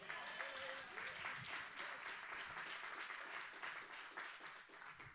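An audience at a sermon applauds steadily, a dense wash of many hands clapping at a fairly loud, even level for several seconds, with a few faint voices and brief tones mixed in.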